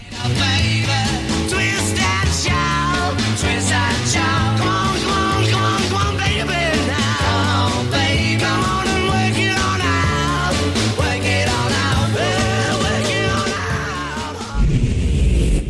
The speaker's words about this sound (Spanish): Lo dejo con esta gran canción de … llamada …